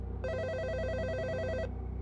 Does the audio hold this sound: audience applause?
no